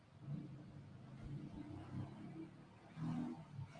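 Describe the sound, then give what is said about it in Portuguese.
A motorcycle engine passes by, its buzzing drone swelling and easing with a couple of revving surges over a low road rumble, moderately loud. “Vocês viram a moto passando? Não, mas agora passou a de verdade.”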